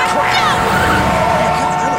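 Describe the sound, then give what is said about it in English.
A loud roar of a large truck speeding past in a near collision, its engine whining and rumbling steadily for a couple of seconds, with muffled voices mixed into the noise. “That damn truck came out of nowhere.”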